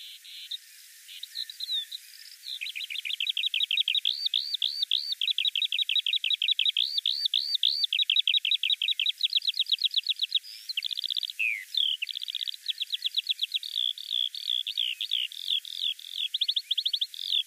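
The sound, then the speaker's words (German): A skylark sings in flight on and on without pause, a rapid, high-pitched stream of trills, warbles and chirps that keeps shifting in rhythm. No one speaks. “Die Männchen stecken damit ihr Revier ab, singen da in der Luft minutenlang trillernd.”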